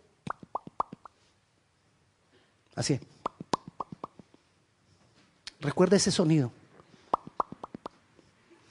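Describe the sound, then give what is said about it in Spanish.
Light tapping in quick clusters of four or five sharp knocks, imitating a mason gently striking with a small hammer, with a few short spoken phrases between the bursts of taps. “Así como el albañil con un martillito que no duela mucho.”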